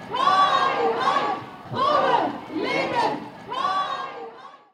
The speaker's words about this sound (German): Den Ruf Jinjan Azadi oder Frauen leben Freiheit hört man auch hier in Freiburg.